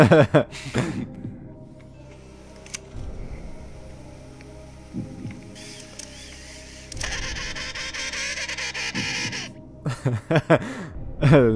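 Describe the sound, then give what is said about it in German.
A person imitates a penguin call with their voice, making drawn-out, braying, wavering cries that rise and fall over several seconds, fairly loud, with short breathy bursts at the start and end. “Nein, ein Pinguin.”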